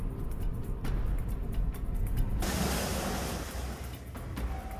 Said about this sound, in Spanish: Insólitas inundaciones en desiertos arábigos.